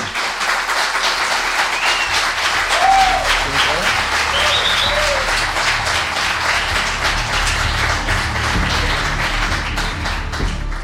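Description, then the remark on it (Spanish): Sustained audience applause for guest speaker Carlos Canales at a Nueva Dimensión evening event in Logroño, a dense crowd clapping steadily and loudly for about eleven seconds, with a couple of brief whistles rising above it and no talking. “Un fuerte aplauso para él.”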